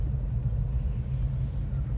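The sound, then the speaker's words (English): The engines of a motorcycle group rumble while waiting for a ferry across a river, a deep, low-pitched, continuous drone that holds fairly steady in loudness throughout, with only slight surges and no voices. “The sound that you hear are the engines revving of the the uh,”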